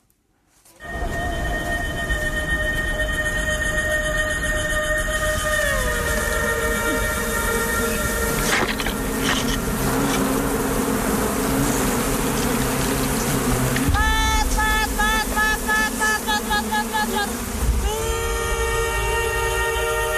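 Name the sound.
bees buzzing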